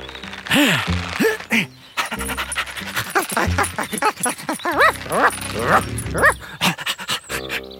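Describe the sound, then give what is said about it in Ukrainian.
A voice imitates the little dog Mo in a told story, with a run of short, high yapping barks and whiny whimpers, fairly loud, coming in quick irregular bursts. “Раф, так, раф.”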